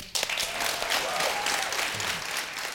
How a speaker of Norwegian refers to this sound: Tusen takk for at dere kom. alle sammen. stor applaus